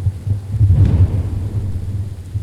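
A deep, loud rumble of thunder rolls through a storm, swelling to a heavy crash around the first second before trailing off into a low, sustained growl. No voices are present.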